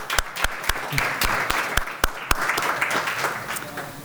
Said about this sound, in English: Please, and uh, applause, people.